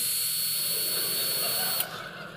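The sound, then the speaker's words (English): A voice imitates a leaf blower being used on a giant puddle in a sandbox, with a steady, roaring whoosh and a thin high whine. It holds for nearly two seconds, then cuts off abruptly. “He's in his sandbox, and there's this giant puddle, and he's just taking the blower going,”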